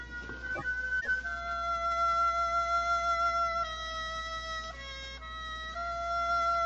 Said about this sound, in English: Shh. Listen. There's the music. Yes. Heralding the messenger of death. Have your lantern ready, Watson.